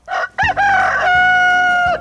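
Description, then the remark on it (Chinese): A rooster crows loudly at dawn, at first light: a short clipped note, then a rising call that holds a long, steady harmonic tone before dropping off at the end. No one speaks. “公鸡姑姑就准时起床，然后发出它洪亮的啼叫声。”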